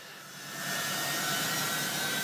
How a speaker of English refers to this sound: And then this startling image one of the US's largest cargo planes taxiing, laden with Afghans who did not want to be left behind.